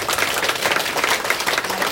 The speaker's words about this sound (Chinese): 所以呢，我想借由大家的掌声呢，来分送给我这些要感谢的人。